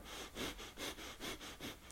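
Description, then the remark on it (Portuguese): Rapid, forceful nasal breaths pump in a steady rhythm, about five sharp sniff-like exhalations in under two seconds, fairly quiet, with no talking; breath-of-fire breathing, forced from below the navel. “Pode dar uma acrescentada nisso e fazendo uma respiração tipo fogo, em que vocês fazem uma respiração embaixo do umbigo, forçada”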